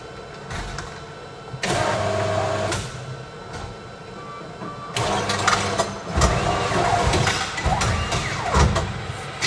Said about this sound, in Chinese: 因为美术馆声音啊，其实非常安静哦。现在没有什么人去，所以那个机器的声音啊，零钱掉出来的声音就特别的明显，还把我吓了一跳。